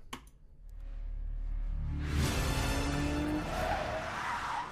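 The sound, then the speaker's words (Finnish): A classic car's engine rumbles low, then tires skid and squeal loudly for a couple of seconds, a sustained screech over engine noise, in a James Bond film trailer. “Oi, se on klassinen Klassista autoa.”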